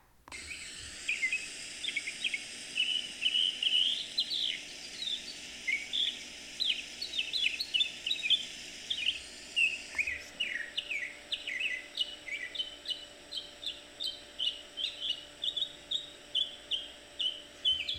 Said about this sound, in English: Do you like the sound of these birds? I went outside, sat by my lake under a tree, put a towel down, and voila, the sound of the birds. Enjoy.